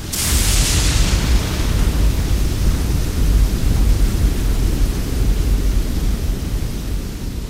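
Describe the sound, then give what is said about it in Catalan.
A thunderstorm that has not let up for hours rages with heavy rain and gusting wind, a loud, steady roar with deep rumbling underneath and a brighter hiss in the opening second, no voices present. “la tempesta que no afluixa des de fa hores.”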